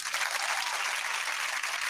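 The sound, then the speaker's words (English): A steady round of applause, many hands clapping in a dense, even patter that holds at a constant loudness for the whole stretch, with no voices standing out. “Wow, let's give them a big round of applause.”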